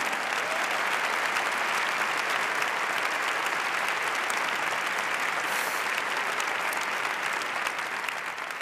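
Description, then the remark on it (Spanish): Sustained audience applause for ten Catalan-language films, a dense steady wash of many hands clapping at an even loudness for several seconds, with no voices rising above it. “No patiu, que el 25% d'aquests aplaudiments eren en castellà, o sigui que això ho tenim fet.”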